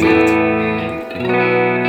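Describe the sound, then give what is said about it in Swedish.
A sustained, effects-laden guitar tone rings out with a reverberant wash, shifting to a new held chord midway, loud with no one talking over it. “Lite reverbigt.”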